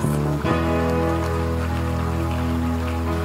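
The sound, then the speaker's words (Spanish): An audience applauds God in a dense, steady wash of clapping that holds for a few seconds, layered over a sustained musical chord, with no voices. “¿Por qué no le damos un fuerte aplauso a Dios?”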